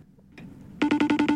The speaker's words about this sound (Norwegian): Ja, men jeg trenger ikke gjette på hva det er. Det er lyden av FaceTime. Ja, det er det. Og hvorfor er det lyden? Fordi vi facetimer hverandre veldig mye.